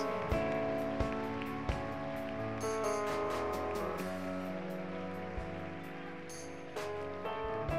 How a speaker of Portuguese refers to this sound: Como servo e sacerdote do Senhor e como igreja, nós queremos recebê-los em nome de Jesus, e já com uma salva de palmas bem alta, Jesus, por cada um que fez esta oração pela primeira vez.